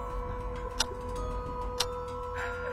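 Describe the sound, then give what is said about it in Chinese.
A wall clock ticks slowly at midnight, two crisp clicks about a second apart, heard over a quiet, steady low hum with no voices. “醒来的时候刚好是午夜，四周静悄悄的，只有墙壁上的钟滴答滴答的响着。”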